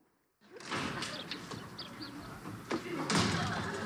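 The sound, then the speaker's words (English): A door bursts open abruptly out of silence, followed by bustling movement and a few sharp knocks and thuds, with a heavier slam near the end, fairly loud, with faint voices in the background. “Did it ever occur to you that when the door is closed, we're trying to keep unwanted people out?”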